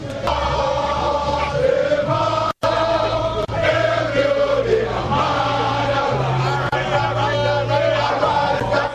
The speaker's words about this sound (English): As it starts to get dark, the crowd becomes agitated, demanding the removal of barricades so they can demonstrate in front of the Jubilee House.